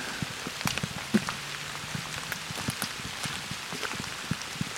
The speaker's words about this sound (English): So as you can hear, it's raining a bit.